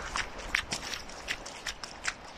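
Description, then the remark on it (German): Quick, regular footfalls of someone running barefoot on beach sand, each step a soft gritty crunch, fairly quiet, with no voices over them. “Barfußlaufen am Strand / Barefoot Running on the beach”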